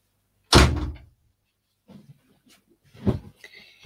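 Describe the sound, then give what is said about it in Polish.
A door shuts with a loud thump after a cat is let out, followed by a few quieter rustles and clunks, then a second sharper knock and a brief high creak near the end as a second cat wants out. “Teraz drugi kot chce wyjść.”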